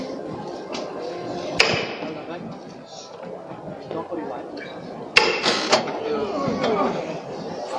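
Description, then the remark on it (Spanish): Bearers lift a procession float, halted beside the Santa Iglesia Catedral near calle Almenas: a sharp knock rings out over a murmuring crowd, then a second strike is followed by a brief surge of clatter and rustling as the float goes up. “Vamos a escuchar cómo levantan.”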